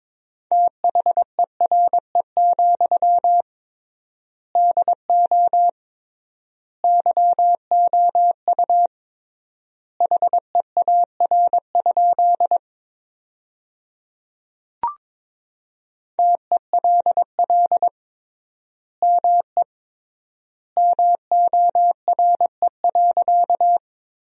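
Morse code sent at 22 words per minute with triple word spacing, forming sentences from the 300 most common words, as a single clear, steady-pitched tone, rapid dots and dashes grouped into word bursts separated by noticeable pauses, with one brief click partway through and no voices.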